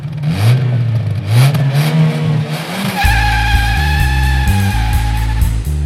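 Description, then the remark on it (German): A car engine revs repeatedly, pitch climbing and dropping, then settles into a loud, sustained high-speed roar as the vehicle drives hard, with no voices. “Kein Gedanke, nur der Motor, die Straße, die Lichter. Fahren, fahren.”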